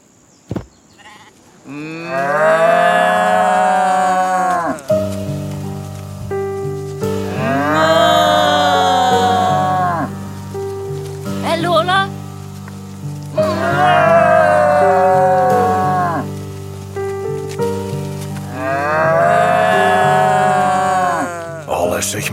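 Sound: cow mooing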